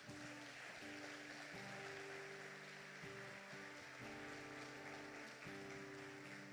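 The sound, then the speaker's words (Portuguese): An audience claps steadily in a dense, sustained wash of applause for Jesus at the close of a church worship service, with sustained organ-like chords playing underneath throughout. “Dá um salto de palmas para Jesus, amados.”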